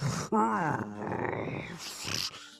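A deep, rumbling monster growl voiced by a person, loud, drawn out over a couple of seconds with a rough, gravelly texture and a brief break partway through.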